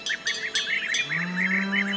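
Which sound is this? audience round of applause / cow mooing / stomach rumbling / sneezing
cow mooing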